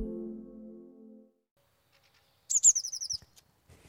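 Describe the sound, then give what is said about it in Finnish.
A blue tit sings in spring, a quick, bright burst of high chirps in a rapid trill lasting under a second, following a brief low humming tone that fades out. “Joo, nyt alkaa jo olla linnuilla kevättä ilmassa sinitiaisillakin ja, ja linnun laulu”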